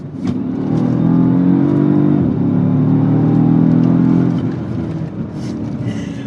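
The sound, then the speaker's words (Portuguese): The twin-turbo V8 engine of a Mercedes-AMG S-Class sedan, over 5 metres long and over 2 tonnes, with 80 kgf·m of torque, revs up loudly and holds a deep, rumbling roar, dips briefly, then surges again before easing off into a lower idle growl. Prominent, with no talking. “Você imagina num sedã de mais de 5 metros, mais de 2 toneladas, você meteu um motor V8 biturbo com 80 kg de torque, com um ronco insano, absurdo, uma dirigibilidade sem outra igual pro segmento.”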